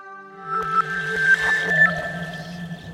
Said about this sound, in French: écoute le vent c'est le sahara qui pleure je connais la suite il veut reverdir écoute le vent